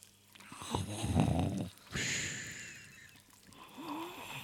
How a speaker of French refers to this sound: Euh, l'espace de deux secondes, il y a deux, trois ronflements qui s'arrêtent, mais ça repart.